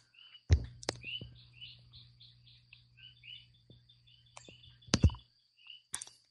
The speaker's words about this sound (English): So I'm watching the sunrise. The birds here are beginning to join in with the frogs.